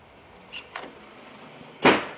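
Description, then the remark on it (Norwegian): A door, opened in a draft, slams shut with a single loud, sharp bang near the end, preceded by a couple of faint clicks and rattles in otherwise quiet surroundings. “Smelte jeg døra?”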